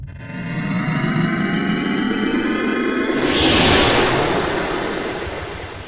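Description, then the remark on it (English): A continuous, heavy roaring rumble builds over several seconds, a dense low-end engine blast with a rising hiss on top, like rocket engines firing at liftoff. No one speaks. “We, we, we have liftoff, Captain Punch.”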